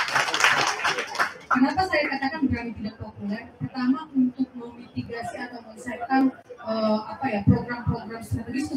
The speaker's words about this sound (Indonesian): Tepuk tangan dulu loh Bapak Ibu. Gak mudah loh.